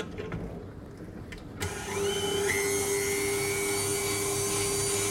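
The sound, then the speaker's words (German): An electric kitchen mixer switches on after a brief quiet stretch and keeps running with a steady, loud whir and a sustained motor hum, its pitch settling slightly higher as it spins up. “Ja, Leute, auf jeden Fall, es wird jetzt gemixt.”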